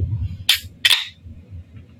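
A beer can is cracked open: a sharp metallic click followed by a short, bright fizzing hiss, standing alone over a low background hum.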